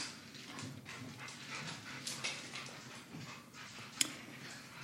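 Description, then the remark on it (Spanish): A dog barks and whimpers in scattered bursts, fairly quiet, with a sharp yelp near the end and no one talking. “mi, perro decidió tener fiesta, güey.”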